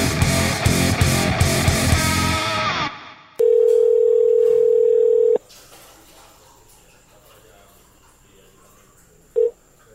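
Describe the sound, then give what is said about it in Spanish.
A telephone dial tone as a guest is called by phone for a segment about beer: one steady, mid-pitched hum lasting about two seconds after a loud busy passage fades, then a brief matching beep near the end. “Vamos con el primer segmento de este episodio y vamos a tener por teléfono”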